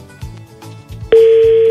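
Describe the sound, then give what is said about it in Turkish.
A loud, steady telephone ringback tone of an outgoing call to a prize winner begins abruptly partway through and holds to the end, following a quieter stretch of low, muffled thumping sounds. “Ha çalıyor. Heh, şu anda çalıyor çalıyordu bakalım.”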